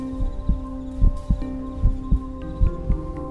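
A quick, pounding heartbeat of deep paired thumps repeating steadily and heavily, over a sustained low droning hum with no voices.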